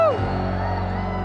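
A group of voices lets out a brief shout of cheers, one falling whoop on top, followed by a sustained, noisy roar of crowd noise that holds steady for about a second.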